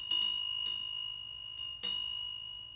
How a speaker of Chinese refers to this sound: 古塔七层，每层都挂着风铃，偶尔有微风拂过，古朴的风铃声远远飘过，悠远而平和。